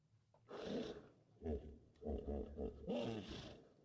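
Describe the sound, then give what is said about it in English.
A person imitates a hippo's howl: several deep, growling, roaring vocal bursts in a row, fairly loud, with short breathy pauses between them. “This gathers a howl from the hippo.”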